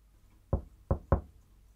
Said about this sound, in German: Er legte das Ohr an die Tür, klopfte sacht an und flüsterte Hallo.